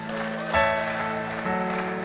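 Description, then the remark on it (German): An audience at a sermon breaks into steady applause for one person who has just chosen Jesus as their good shepherd, a dense wash of clapping hands that swells slightly partway through, with sustained tonal music playing underneath. “Hey, lass uns dieser einen Person einen dicken Applaus geben.”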